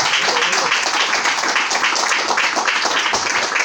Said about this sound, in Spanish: Den un aplauso al Señor, por favor, en esta noche.